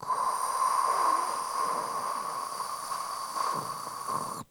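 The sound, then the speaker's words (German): A voice imitates the noise of a newborn baby's breathing tube, which makes this sound the whole time: a steady, airy hissing rush lasting several seconds, with a slight swell near the start and a brief surge near the end. “der, der Atemschlauch, der die ganze Zeit dieses Geräusch macht.”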